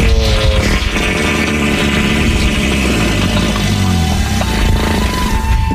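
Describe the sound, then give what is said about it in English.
A loud, sustained fart sound effect played on a radio show as a dedication for Buddy Andrews' 54th birthday, a buzzy, rumbling low blast that sputters on for several seconds with a wavering pitch and no talking over it. “How about uh, a fart for the man who once claimed he doesn't and the dirty German since he loves all things German?”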